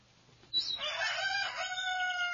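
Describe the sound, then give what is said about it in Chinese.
A free-range Jiuyuan black rooster at the Wanyuan Hengkang ecological breeding base in Dazhou, Sichuan, China, crows once at daybreak, a loud, drawn-out cock-a-doodle-doo that starts abruptly and holds a bright, harmonic tone before trailing off, with a faint low hum underneath. “在绿色的丛山中，达州市万源恒康生态养殖基地放养的旧苑黑鸡正高傲地鸣叫着。”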